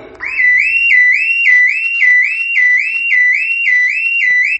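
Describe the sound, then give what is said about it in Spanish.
A house burglar alarm blares on its own, a loud electronic tone sweeping up and down in rapid repeating cycles, roughly twice per second, steady for the whole stretch. “Y nosotros nos quedamos en la cama y es la alarma de la casa que está informando que ha entrado un ladrón.”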